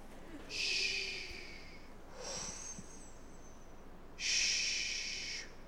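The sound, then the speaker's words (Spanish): Slow, deep breaths during hypnosis, a long airy exhale, a softer inhale, then another long exhale, each drawn out over a second or more with quiet pauses between. “Respira, quiero escuchar tu respiración. Exhala. Inhala. Exhala.”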